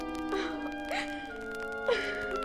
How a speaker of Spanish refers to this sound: Entonces Neptuno y Ondina empezaron a llorar.